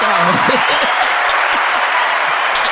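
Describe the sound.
A canned burst of applause and cheering, played at the press of a button: steady, dense clapping at an even loudness throughout, with a few whooping voices rising over it near the start.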